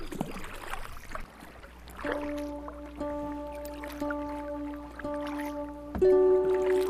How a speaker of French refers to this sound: Et on le fait à présent sur un canoë à travers une myriade de lacs au Canada.